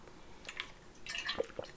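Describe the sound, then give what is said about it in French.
A quiet sip of water: a few soft wet slurps and small liquid clicks spread over about two seconds, with no one talking. “Prendre une petite gorgée d'eau, ben, ça fait quand même un petit bout que je parle.”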